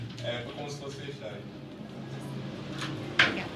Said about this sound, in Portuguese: Convidado abre a porta. Convidado abre a porta.